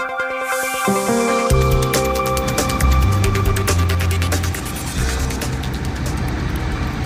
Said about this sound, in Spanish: Ahí escuchas el estruendo que proviene del volcán Mauna Loa en Hawái. Se le considera el más grande del mundo y entra en erupción tras 38 años dormido. Olas de lava anaranjada y cenizas humeantes brotan del cráter